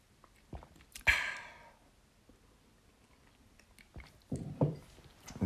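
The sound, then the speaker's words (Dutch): Mouth sounds of someone sipping Nono Tropicaal from a cognac glass: a few short slurps and swallows with a sharp wet burst early on, separated by quiet pauses, with no talking. “Sip a little.”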